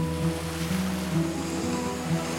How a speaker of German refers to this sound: noch einmal die Wellen an der Ostsee beobachten.